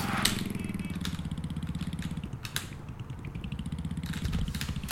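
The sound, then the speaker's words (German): A motorcycle engine in a video game chugs steadily in a rapid throbbing rhythm, broken by several sharp crunching impacts like a crash, with no voices. “Das ist mein Motorrad.”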